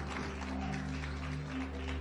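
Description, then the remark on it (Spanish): A church audience claps loudly in praise to God, the King of Glory, in a dense, sustained wash of applause, steady and loud throughout, with a low, constant tonal hum running underneath. “de fuertes palmas al Rey de Gloria.”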